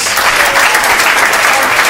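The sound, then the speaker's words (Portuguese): An audience applauds the Wednesday guest of the show Peladeiros steadily, a dense, loud wash of many hands clapping at once that holds an even level throughout, with no one speaking over it. “Por favor, meninas nuas, uma salva de palmas para o nosso querido convidado desta quarta-feira”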